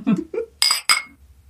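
Two quick, bright glass clinks ring out in a toast in a small booth, one right after the other, each with a short shimmering tone, following a brief murmur of voice.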